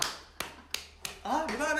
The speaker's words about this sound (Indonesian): Dengan tepuk tangan Anda akan terbangun